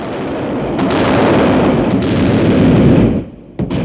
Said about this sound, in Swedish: Den 25 november 1917 avfyrade revolutionära soldater skott från pansarkryssaren Aurora.